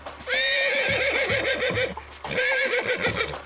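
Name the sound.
horse neighing and whinnying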